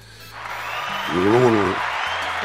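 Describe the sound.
A crowd breaks into steady applause that swells and holds for a couple of seconds, with a voice briefly rising over the clapping partway through and a low hum underneath.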